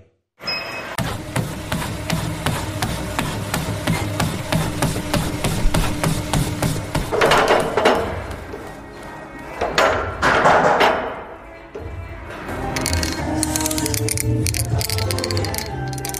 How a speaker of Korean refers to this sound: 아마도 이 소리, 운동 좋아하시는 분들은 딱 듣고 아셨을 겁니다. 헬스장에 운동기구가 내는 기계음 소리죠.